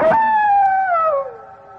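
A single loud wolf howl, starting with a brief rough onset and then a long wavering tone that slowly slides downward in pitch and fades, with no other sounds around it.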